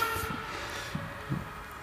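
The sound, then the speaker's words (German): An emergency vehicle's siren sounds as a steady, high tonal wail held over a low, rumbling traffic background, with a few soft thumps and no one speaking. “Dass unglaublich viele Sirenen hier ja. vorbeifahren.”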